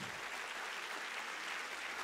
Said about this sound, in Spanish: Y si usted está listo para esto, dele mejor el aplauso al Señor.